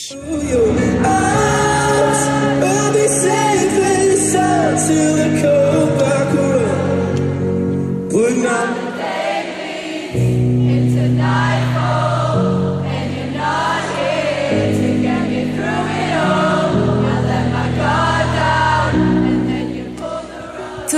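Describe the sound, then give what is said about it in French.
A large concert crowd sings along in unison over loud live music, a dense, continuous wash of many voices carrying the melody for the whole stretch. “la foule s'est mise à chanter.”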